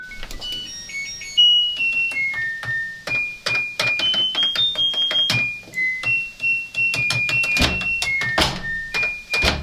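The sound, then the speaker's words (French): Two people play a washing machine as an instrument: one taps the programme buttons, beeping in a melody of high electronic tones, while the other opens and shuts the door with rhythmic thuds and clunks, forming a loud, steady musical performance with no talking. “Il y en a un qui tape sur les boutons de programmation de la machine et l'autre qui ouvre et qui ferme la porte.”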